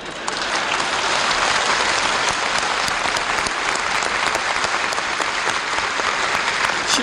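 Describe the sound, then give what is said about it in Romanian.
An audience at a political speech in Romania claps steadily for about seven seconds, many hands blending into a dense, even roar of applause with no voices on top. “Nu vă grăbiți să aplaudați.”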